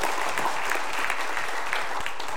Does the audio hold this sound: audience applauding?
yes